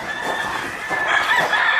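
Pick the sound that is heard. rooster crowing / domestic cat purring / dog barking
rooster crowing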